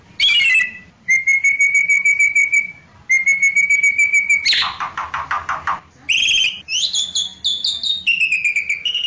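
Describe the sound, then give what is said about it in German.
A Bali starling calls with loud, clear whistled notes, some held steady and some rising, broken midway by a harsh, raspy chattering burst before the whistles resume. No one speaks. “Das heißt, von diesem Bali-Star gibt es nur noch eine Handvoll.”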